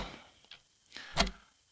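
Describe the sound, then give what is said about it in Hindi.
An alarm clock ticks softly, a handful of crisp, sharp clicks arriving at a steady pace of roughly two per second, with no voices over a quiet background. “लेकिन जैसे ही मैंने अपनी अलार्म घड़ी को देखा बारह बजकर छः मिनट हो रहे थे”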